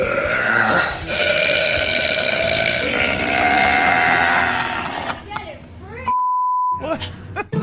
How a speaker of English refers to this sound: Uh, the uh, record is 107.3 decibels. Uh, here, let's uh, let's let's find the video. Uh, share the screen. Uh, where is the video? oh yeah, loudest burp by a woman.